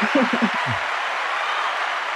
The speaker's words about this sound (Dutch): Uh, even kijken, ik heb een heel leuk dingetje die ik dan meteen... had ik eigenlijk meteen hup, boem moeten doen. Komt ie aan, hè? Applaus!